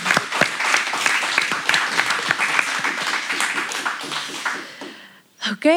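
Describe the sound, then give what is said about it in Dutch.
A crowd applauds for Holton Dream with dense, steady clapping that carries on for several seconds before fading, then a voice begins speaking at the very end. “Ook een groot applaus via de stream dan voor Holton Dream.”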